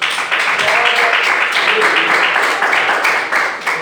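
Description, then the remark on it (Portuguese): An audience of about 15 people breaks into sustained, loud applause for the Lord Jesus, a dense wash of many hands clapping that holds steady for nearly four seconds before easing slightly at the end. “Que a mocidade é a oportunidade e palmas lá o Senhor Jesus.”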